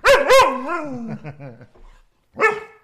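An angry male dog lets out two sharp, loud barks in quick succession, then a drawn-out whining, grumbling vocalization that trails off, followed by one more bark after a short pause. No talking.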